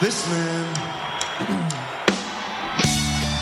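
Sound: audience booing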